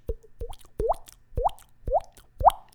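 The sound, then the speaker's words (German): A person imitates dripping water with their mouth, producing six hollow plopping sounds at a steady, slightly uneven rhythm, each with a rising tonal pop, with no talking. “Und ähm, warte mal, ich kann, ich weiß nicht, ob man das jetzt hört, aber ich kann ähm, ein, ein Tropfgeräusch nachmachen.”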